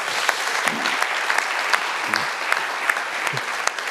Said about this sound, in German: Komm, gebt uns einen Applaus